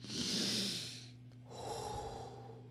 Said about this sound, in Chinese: 花豹深呼吸一下。